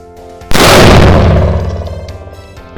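A single loud explosion bursts in abruptly after a brief quiet moment, a broad roaring blast that slowly decays into a rumbling, crackling tail.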